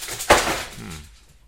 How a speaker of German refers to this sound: Falls du jetzt gerade was hast bockeln hören, mein Hund hat versehentlich zwei Ordner umgeschmissen, als er seine Beute gejagt hat.